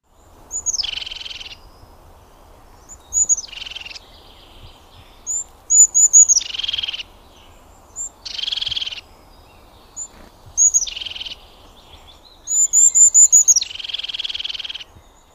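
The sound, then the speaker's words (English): Crested tit calling in soft, bubbly trills, the repeated call forming its song, about nine short bursts repeated at fairly regular intervals, clear against a faint background hiss with no other voices. “The crested tit's call is somewhat soft and bubbly trill that, when repeated, becomes the bird's song.”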